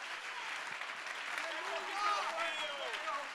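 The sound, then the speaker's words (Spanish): An audience applauds in a dense, steady roar of clapping that holds for several seconds, with voices calling out and shouting over the noise. “Si tú puedes aplaudir, hazlo bien.”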